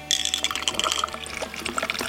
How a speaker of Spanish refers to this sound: Bueno, yo no sé vosotros, pero yo tengo aquí tengo aquí esto que, que, significan unos hielos y me voy a hacer una ginebra